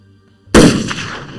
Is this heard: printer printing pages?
no